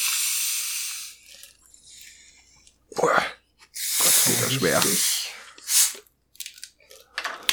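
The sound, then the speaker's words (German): A soft drink bottle is twisted open, giving a few short, airy hisses of escaping gas amid faint cap clicks, with a person speaking briefly around them. “Aber ich werde jetzt die mal öffnen.”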